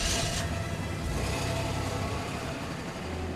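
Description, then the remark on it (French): A car engine rumbles steadily, opening with a brief burst of hiss before settling into a low, even drone with no voices, as a man starts his car and reverses away. “Il s'éloigne en courant vers sa voiture. Il démarre et recule hors de portée de vue de Moser.”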